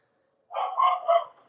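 dogs barking excitedly

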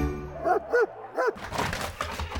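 large dog barking

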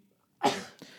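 sneeze

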